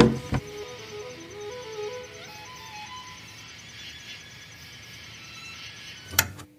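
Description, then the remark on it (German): A window is tilted open: a sharp click of the handle at the start, then a steady outdoor hum with faint insect-like chirping, and a second sharp clack near the end. No one speaks. “Du, ich mache uns mal ein bisschen das Fenster auf Kipp.”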